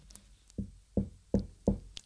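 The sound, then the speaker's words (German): Four steady knocks on a door, evenly spaced, with a solid thud to each rap and quiet in between; no one speaks. “er kommt leise, er klopft an und jeder, der am aufmacht, zu dem geht er rein”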